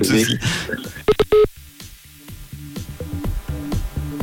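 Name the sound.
telephone call tones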